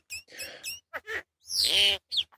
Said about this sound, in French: C'est des, des, petits sons euh, que nous a envoyés, justement à Lefto, des sons de la Réunion qu'il a chopé dans son jardin comme ça. C'est les vocalises d'un Martin qu'on entend.